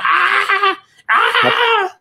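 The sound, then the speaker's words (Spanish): A man imitates a high-pitched, girlish scream in two loud, sustained bursts separated by a brief pause, the voice straining and wavering. “Y pues me emocioné tanto, güey, que empecé a gritar, pero se era cagado porque empecé a gritar como niña, güey.”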